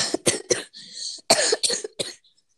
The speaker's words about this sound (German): Ja, wenn man aufsteht, hustet man doch nicht. Das merkst du nicht mal.